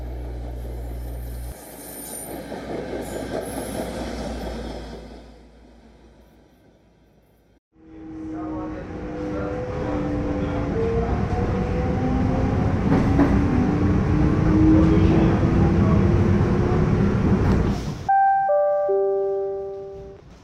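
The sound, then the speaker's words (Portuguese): A train rolls along the rails with a loud, steady rumble and rising metallic wheel squeal, fading briefly before surging back, then ending in a clear electronic chime like a station announcement tone. “passageiro, ao desembarcar, observe o espaço entre o trem e a plataforma.”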